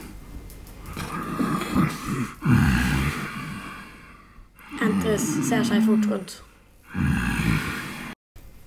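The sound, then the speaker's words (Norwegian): Deep, dark, rumbling snores repeat in a slow rhythm, coming from the shadows of a very large pine tree: four long throaty breaths, fairly loud, each separated by a brief pause. “Og du hører en nesten ja, sånn mørk, brummende snorking.”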